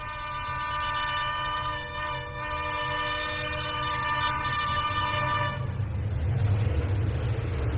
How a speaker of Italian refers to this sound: …. The sounds of a vanishing era.